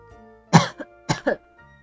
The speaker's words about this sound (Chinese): 咳嗽